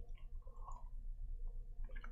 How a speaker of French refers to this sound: Alors ici, je continue, je prends un petit verre d'eau avant.